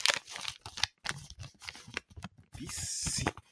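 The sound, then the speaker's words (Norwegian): Security tape being torn and peeled to open door number five of a calendar, in several quick, crackly ripping bursts, ending in a longer, steady hissing tear, with no talking. “Men vi åpner eh, luke fem i kalenderen vår.”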